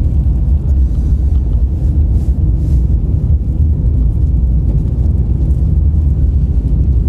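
Steady low engine and road rumble from inside a car moving slowly in a traffic jam in Hakata, Fukuoka, Japan, stopping and then starting to move again; a continuous deep drone with faint wind noise and no voices.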